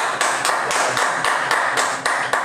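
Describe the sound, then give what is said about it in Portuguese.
Steady, dense applause from a crowd, a continuous bright wash of many hands clapping with sharper individual claps popping out, loud and sustained with no one talking; the crowd is applauding the State of Israel. “Pera aí, vamos aplaudir aqui o Estado de Israel.”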